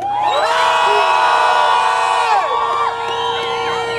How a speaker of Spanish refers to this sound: Vamos a mandar un grito que se escuche hasta norte de Santander.